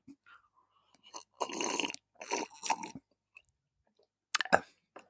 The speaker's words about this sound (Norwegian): Vil du høre hvordan det høres ut når jeg drikker den safta?